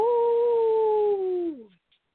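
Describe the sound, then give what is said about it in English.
A woman lets out one long wolf-like howl, holding a steady, fairly loud tone for about a second and a half before it slides downward and fades. “Oh, there's my howling girl.”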